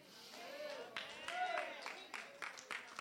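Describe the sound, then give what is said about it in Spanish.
Only four people clap sparsely and unevenly, with about eight scattered, moderately loud claps over a few seconds while a voice continues faintly in the background. “Solo cuatro aplaudieron, Solo cuatro lo entendieron.”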